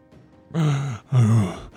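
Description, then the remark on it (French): Two heavy, voiced out-of-breath pants in quick succession, fairly loud, made by a person imitating a tired, winded toad huffing for air. “la route était encore longue et le crapaud était un peu essoufflé.”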